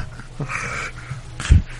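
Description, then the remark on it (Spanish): A voice imitates breathless, pig-like wheezing, as if short of air: strained, raspy gasps in a short run, ending in a louder snorting burst, unaccompanied by speech. “Como que le falta el aire, como cerdo mutado, así de.”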